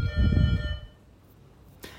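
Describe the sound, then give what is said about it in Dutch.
A doorbell rings, a steady electronic chime with bright layered tones that holds for under a second, then fades into quiet, followed by a brief soft knock or thump. “En dat, ja, de bel gaat intussen, zoals je hoort.”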